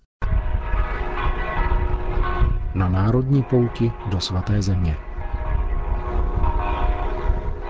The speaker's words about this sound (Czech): Hlas zvonů z betlémské baziliky narození páně nás přinesl do svaté země